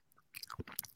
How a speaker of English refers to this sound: I just don't need it. I don't need to hear the chomp chomps of the beans and the bacon. Don't need it.